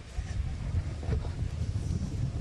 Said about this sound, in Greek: Δεν ξέρω καν αν μπορούν οι πυροσβέστες, αν δεν κοπάσει λίγο ο αέρας, να επιχειρήσουν σε αυτές τις συνθήκες, να επιχειρήσουν να σβήσουν αυτή τη φωτιά